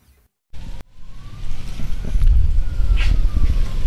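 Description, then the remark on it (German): A faint emergency siren wails in the distance in Christchurch, New Zealand, its thin tone gliding slowly up and down above a steady low rumble of traffic, with no one talking. “Da hinten sind schon wieder die Sirenen an und...”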